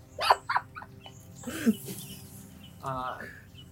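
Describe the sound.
A person imitates a crow as a signal, giving a few short, harsh caws in quick succession, followed by another drawn-out, raspy call.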